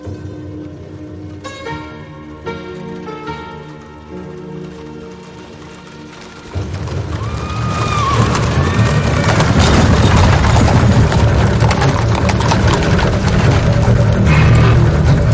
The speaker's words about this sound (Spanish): En una oscura calle adoquinada, alumbrada por unos pocos faroles, varios coches de caballos de la policía londinense cabalgan a toda prisa.